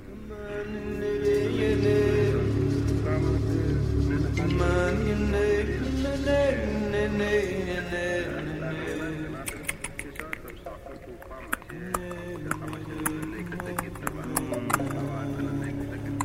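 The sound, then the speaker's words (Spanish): Firework rockets crack and pop in the background in Mexico City on 2 February 1981, during the Candelaria festival, a scatter of sharp, irregular bursts that thicken in the second half beneath a steady wash of voices and sustained tones. “Los cohetes de fondo. Siempre el ruido luminoso de los cohetes.”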